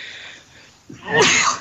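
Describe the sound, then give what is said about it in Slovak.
A single sharp sneeze bursts out, preceded by a brief sharp intake of breath and followed by a fading exhale, with no talking during it. “pardon, na zdravie.”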